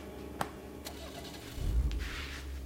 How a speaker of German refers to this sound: Erst als er Taschas Wagen starten hört, atmet er aus.